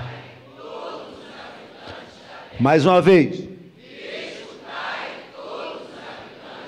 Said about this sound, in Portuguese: Grito de guerra.